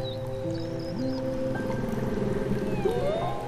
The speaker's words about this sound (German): Die anderen drei Buckelwale stimmen jetzt mit ein in den Gesang. Wie toll ist das denn?